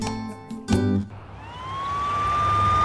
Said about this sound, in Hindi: अरे हटो हटो भाई साइड हो जाओ एम्बुलेंस आ गई है